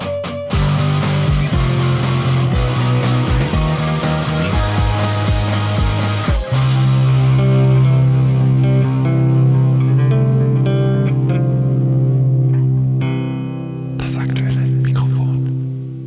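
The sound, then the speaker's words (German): A loud fanfare jingle opens with a run of punchy, rhythmic hits, then settles into a long sustained chord with a heavy echoing tail and a bright flourish near the end. “Ja, eigentlich waren wir ja beim aktuellen Mikrofon und hier kommt jetzt die Fanfare.”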